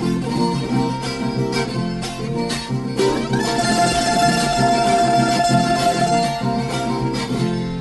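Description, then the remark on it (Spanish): A Colombian tiple, a twelve-string guitar with wound strings, is strummed steadily, its bright, ringing chords rising and falling in a lively rhythm with no voices. “El triple también tiene 12 cuerdas. A ver. Es un poco más, más robusto, más grave.”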